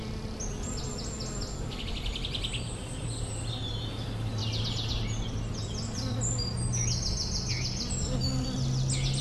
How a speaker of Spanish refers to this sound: ¿Escuchan eso? Un suave murmullo de abejas polinizando y rodeando todas estas flores amarillas.